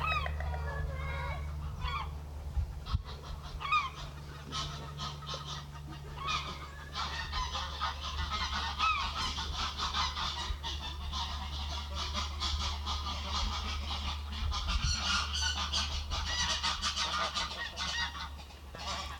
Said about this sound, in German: ich wollte unbedingt Storchengeklapper aufnehmen